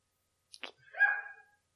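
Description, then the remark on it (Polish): A small dog lets out a single short, high-pitched bark that trails into a brief whiny yip, heard on its own with no talking. “Przepraszam za mojego pieska.”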